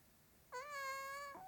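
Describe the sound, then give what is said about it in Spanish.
A single high, thin meow from a kitten in the grass, clear, holding a steady pitch for nearly a second before sliding down at the end, with no talking around it. “Uy, un gatito en la hierba.”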